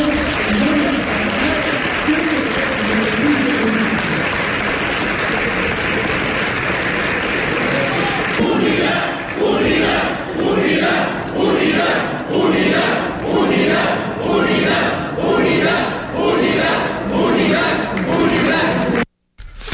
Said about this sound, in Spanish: gritos de unidad, unidad dentro del PRI.